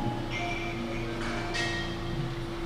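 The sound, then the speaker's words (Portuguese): Beer glasses clink together a couple of times in a toast at Choperia Chafariz, a beer bar on Rua Prudente de Moraes in Jundiaí, each knock leaving a short bright ring, over a steady low hum of background noise with no one speaking. “Dá para fazer o tintim no microfone?”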